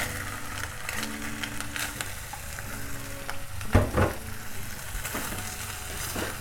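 Steady crackling sizzle of napa cabbage added to a well-heated frying pan while cooking with garlic, a continuous hiss with a few sharper pops and a brief louder clatter midway, no voices.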